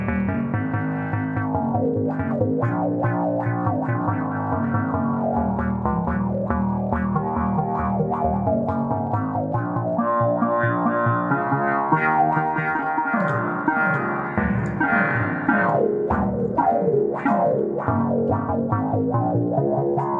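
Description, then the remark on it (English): A keyboard plays a steady, continuous melodic line through a wah-wah pedal, its filtered tone sweeping and warbling as notes shift, loud with no talking over it. “With a little wah wah pedal thrown in.”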